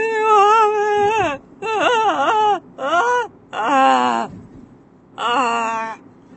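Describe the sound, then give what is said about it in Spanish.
An adult voice mimics a small child's whiny crying in five drawn-out, wavering bursts with short pauses between them, fairly loud. “Cuando empiezan con el llantito por todo, chicos, a mí ahí es como que todo mi no desborde, toda mi calma, mi terapia, todo se me va por el caño.”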